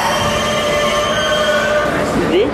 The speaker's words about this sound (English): This is a Queens-bound E train via the F line. The next stop is 42nd Street, Bryant Park. Stand clear of the closing please.